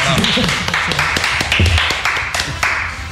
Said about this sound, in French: On peut l'applaudir.